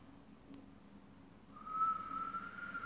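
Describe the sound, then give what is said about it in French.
A soft, steady whistled exhale through pursed lips begins partway in, a thin sustained tone over a breathy hiss, fairly quiet, with no talking, during a breathing exercise of inhaling through the nose and exhaling while whistling. “J'inspire par le nez et j'expire en sifflant.”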